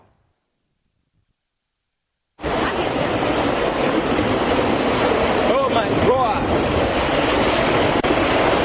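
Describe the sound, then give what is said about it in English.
After a moment of silence, a loud, steady roar of heavy rain and rushing floodwater, after hours of rain, at Tantra Hill, Shiashie or Kasoa, continues unbroken while a voice briefly exclaims over it. “It's been raining in parts of the country for hours now.”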